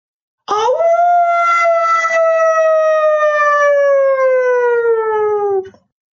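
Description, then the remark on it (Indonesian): A wolf howls once in a long, loud, sustained cry lasting about five seconds, its pitch sliding slowly downward before it cuts off. No other sounds or voices accompany it. “Dan juga samar-samar ia mendengar ulungan serigala.”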